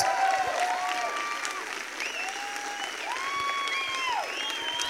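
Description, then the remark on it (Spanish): A steady, sustained burst of audience applause for Jesus fills the whole stretch, dense and even, with raised voices calling out and cheering over the clapping. “Dale un fuerte, fuerte aplauso a Jesús.”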